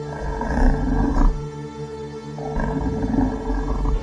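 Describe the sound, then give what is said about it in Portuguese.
A beast's deep, menacing growl rumbles in two long, loud phrases, a low throaty snarl with a brief dip between them and no voices. “E chegou um determinado momento que eles escutaram um rosnado e o rosnado ficou mais perto deles assim.”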